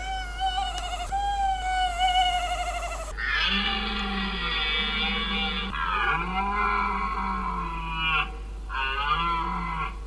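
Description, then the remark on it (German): Drawn-out, bellowing calls of deer, tawny owls and an elephant, heard from a distance, with several harmonic cries overlapping and shifting in pitch for about ten seconds. They are fairly loud and continuous, and no one speaks. “Hirsche und die Waldkäuzchen und dann auch noch ein Elefant. Man hörte sie von der Weite und dann herrschte wieder Stille.”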